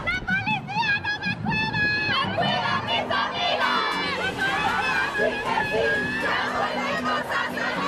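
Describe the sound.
A large crowd of women, tens of thousands marching on March 8 to demand justice, chants and shouts in unison, many high voices overlapping in rhythmic bursts, loud, with continuous crowd noise underneath.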